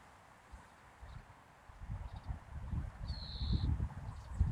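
A single thin, high bird call rings out briefly amid a few faint chirps, over a steady bed of rustling and soft tapping, like birds foraging and calling as they feed.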